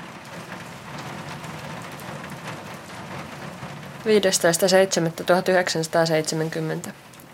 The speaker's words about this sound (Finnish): Hämärää, vettä sataa, litisee somasti